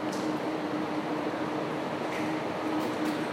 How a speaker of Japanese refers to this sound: ちょっと今中断してもう一回今電車駅の中に入って再開してるんですけれども